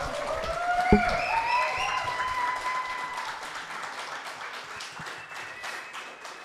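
An audience claps steadily, a dense patter of many hands with a few cheers or whistles rising above it early on, fading slightly toward the end.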